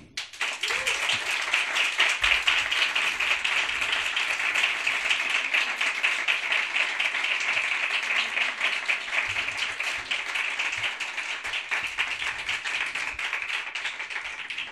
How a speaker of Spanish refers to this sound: Y uno tiene el privilegio de decir, y este es el maravilloso aplauso para recibirle, al gran periodista Javier del Pino.